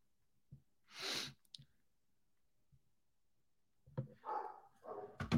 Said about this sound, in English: My dog is barking like a mother. Uh, one second.